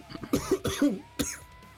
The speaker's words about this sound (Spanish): ¿Qué? hago? me estoy muriendo de tos. Ya me dio.